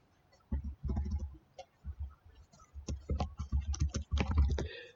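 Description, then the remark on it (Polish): Rapid typing on a computer keyboard as someone checks something, a steady run of clicky keystrokes in uneven bursts with brief pauses between them, fairly loud and with no one speaking. “Mam nadzieję, że nie było słychać klawiatury, ale przestałem mówić.”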